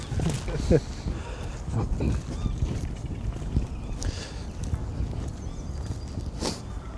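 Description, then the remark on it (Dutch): Footsteps crunch and rustle through shrubs, an irregular scatter of steps over a steady low rustling, with a few sharper brushing snaps along the way. “En helemaal in reporterstijl neem ik ook eventjes het geluid op van de voetstappen.”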